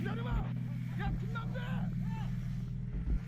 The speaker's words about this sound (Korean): 온몸으로 김 씨를 보호하고는 오토바이를 타고 유유히 사라집니다.